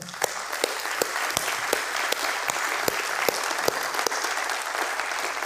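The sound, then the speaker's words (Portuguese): A church audience applauds the Lord steadily, a dense wash of many hands clapping with a few sharper, louder claps standing out irregularly throughout. “Então vamos aplaudir o Senhor.”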